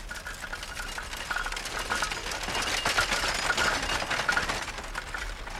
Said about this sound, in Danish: Over landsbyen er der en violet aftenskumring. En hestekærre kører forbi.